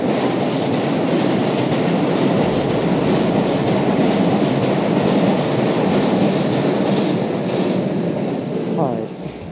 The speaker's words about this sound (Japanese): でちょっと電車が通るので